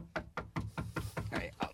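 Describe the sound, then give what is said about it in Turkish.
A rapid series of about eight firm knocks on a door, evenly spaced, continuing steadily for under two seconds with no one talking. “Baba kapı çalınıyor.”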